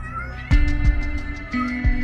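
animal, kittens meowing

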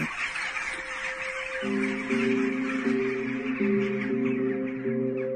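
bird, agitated birds calling

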